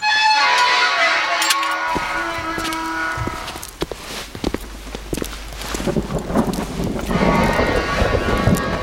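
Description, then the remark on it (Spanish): A metal gate creaks open with a drawn-out, squealing groan as people enter, followed by knocks, clatter and outdoor rustling. No one speaks. “Como decían antiguamente, la cancela de esta puerta, hay que ver cómo ha sonado cuando hemos entrado.”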